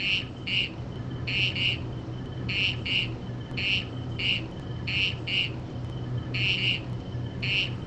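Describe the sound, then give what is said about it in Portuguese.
A small frog of a newly discovered kind calls in short, high chirps, often in quick pairs, repeating at a steady pace over a constant low background hum. No voices are heard. “Vamos tocar aí o, a vocalização da ranzinha.”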